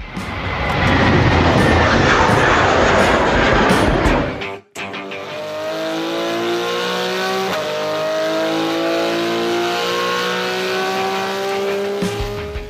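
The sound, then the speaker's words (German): A Porsche 911 GT3 RS sports car engine roars loudly at high revs, then abruptly cuts to a smooth, lower droning tone with shifting harmonic whines as it runs on steadily. No one speaks. “Das war ein Porsche 911 GT3 RS.”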